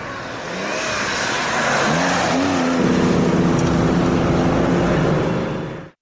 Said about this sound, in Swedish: Motorn hade en enorm sång och väldigt dåliga bromsar.